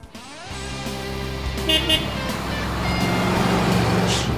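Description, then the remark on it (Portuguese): Busy roadside traffic at a junction of two well-known highways, one being the BR-116 toward Jequié, with a heavy engine idling, a steady low rumble and drone as vehicles pass, and a brief horn toot partway through. “Hoje nós temos uma paradinha aqui nesse entroncamento de duas rodovias muito, muito conhecidas.”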